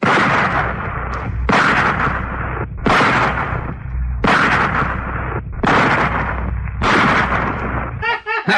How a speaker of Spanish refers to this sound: Apuntó bien. Todos estaban con la vista puesta en la tabla y en la pistola también, amigo. Y al ratito empezó a disparar.